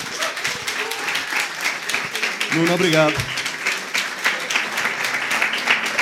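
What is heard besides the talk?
audience applause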